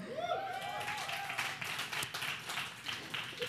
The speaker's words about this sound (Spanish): Sí, un aplauso para producción, los amo un chorro.